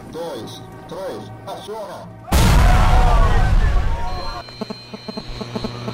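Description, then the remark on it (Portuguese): A single loud, deep explosion as detonators blow up a box in a square bursts in suddenly and rumbles on for a couple of seconds. Indistinct voices come before it, and a high tone and clattering noises follow as it fades. “no momento da explosão nós ficamos protegidos.”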